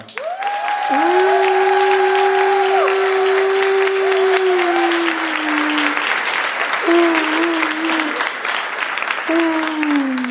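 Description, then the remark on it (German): An audience claps loudly and steadily for about ten seconds, a dense crackle of many hands, with long sustained cheers and whoops rising above the applause. “Und jetzt euer Applaus für Sarah.”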